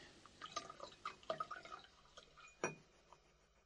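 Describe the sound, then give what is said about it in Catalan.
A few drops of whisky splash and trickle into a glass in a quick run of soft drips and glassy clinks, closing with one brighter clink. It's quiet, with no talking. “Et fa res posar-me unes gotes de whisky?”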